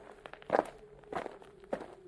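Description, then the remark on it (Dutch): Footsteps walking at a steady, unhurried pace, about four distinct steps over two seconds, fairly clear against a quiet background with no talking, on the walk from a Carmelite monastery to the train station in Nijmegen on a grey winter day just above 2 degrees. “Het is acht minuten lopen van het Karmelklooster aan de Doddendaal naar het station van Nijmegen.”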